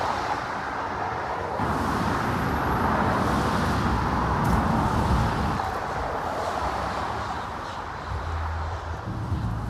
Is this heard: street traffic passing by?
yes